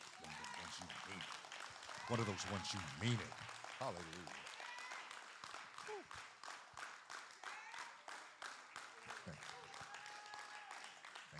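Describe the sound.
A church audience claps hands during a service in a dense, sustained burst of applause that runs the whole way through, while a voice calls out and exclaims over the clapping.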